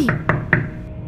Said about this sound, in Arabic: بدأت بالضرب على الزجاج والمنادات منى منى أين أنتِ؟